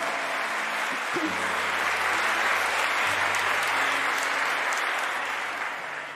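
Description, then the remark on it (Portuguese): Sustained applause from a large church audience applauding the Lord, dense and steady for several seconds with a faint sustained tone underneath, easing off slightly at the end. “Uh, pode aplaudir o Senhor.”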